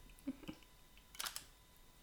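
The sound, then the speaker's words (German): A camera shutter clicks softly a couple of times while a new lens is being tried out, then fires a quick cluster of sharper mechanical clicks. It is quiet, with no talking. “Ich probiere der war mal die neue Kamera, äh, das neue Objektiv.”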